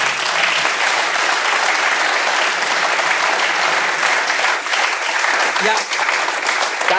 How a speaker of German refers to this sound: ich finde es richtig cool, dass sie alle klatschen